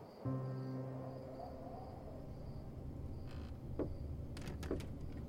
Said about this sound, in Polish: Podszedł do drzwi obok i lekko je uchylił, wskazując pokój, w którym mogli przenocować.